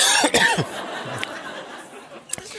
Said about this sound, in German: ich habe mich verschluckt. Ich muss jetzt einmal gerade kurz. Huste das ruhig ab